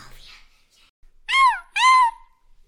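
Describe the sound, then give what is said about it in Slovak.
A five-year-old boy imitates a cat as a meowing jingle, giving two loud, drawn-out meows back to back, each sliding up and then down in pitch, with a short pause between them. “Ako počujete, môj 5-ročný syn práve pribehol na slovo Panthers a urobil mi tu mňaukací jingle, takže ďakujem.”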